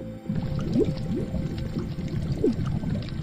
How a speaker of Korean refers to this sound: 보글보글거리는 물소리? 그런데 이걸 좀 더 자세히 들어보면 물속에 잠긴 사람이 무언가를 말할 때 나는 그런 소리와 유사했습니다. 섬뜩하면서도 좀 가슴이 아픈데요.